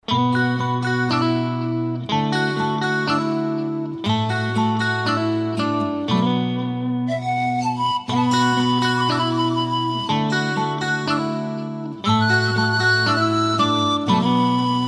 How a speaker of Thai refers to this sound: สำหรับในช่วงแรกนี้เรามารับฟังเพลงพระเพราะกันก่อนสักหนึ่งผลงานเพลงครับ